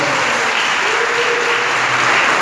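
An audience applauds the Lord in the afternoon, a steady, dense wash of many hands clapping at an even, loud level throughout, with faint tonal hints of music or voices beneath.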